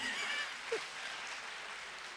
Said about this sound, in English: All right, we're good. That's enough clapping for now.